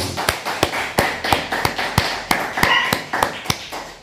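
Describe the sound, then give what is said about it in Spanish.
A burst of sharp, repeated handclaps in a quick, slightly uneven rhythm, a small group applauding after a count of three to welcome all nations at a Shabbat gathering. The claps sound fairly loud, with no talking over them. “Cada vez que, que aplaudimos, mi perrita, mi perrita ladra.”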